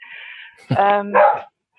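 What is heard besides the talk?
dog barking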